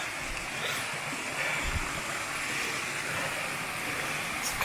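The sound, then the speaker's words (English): Steady, rushing river water flows without a break at Centennial Pool, an area on the river, a dense hiss-like wash that stays even for the whole stretch, with no voices over it. “There's this area here on the river it's called Centennial Pool.”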